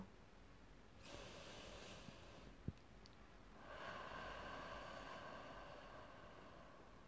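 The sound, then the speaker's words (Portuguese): A slow, deep breath drawn in through the nose, followed after a short pause by a longer, airy exhale through the mouth, one of three deep breaths in a guided breathing exercise. Soft, with no talking. “Você pode, se desejar, fazer três inspirações e expirações bem profundas, puxando o ar pelo nariz e soltando pela boca.”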